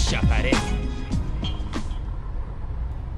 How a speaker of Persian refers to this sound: روزیتا سویچ رو به فرزاد داد و همگی سوار پژو 206 سفید رنگی که کنار کافه پارک شده بود شدند. برزاد سویچ را چرخان و با روشن شدن ماشین ضبط با صدایی بلند شروع به پخش موزیک کرد